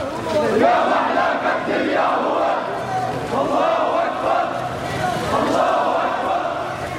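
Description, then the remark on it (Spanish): A large crowd at a funeral procession chants slogans in loud, rhythmic unison, many voices rising and falling together in repeated phrases with a fierce, continuous roar throughout, singing of the pride of a martyr and that his shed blood will not be in vain. “Los cánticos y las consignas esta vez son mucho más feroces.”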